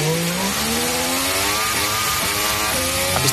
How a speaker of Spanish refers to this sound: Y ahora mismo lo que tenemos es un V6 turbo híbrido que suena así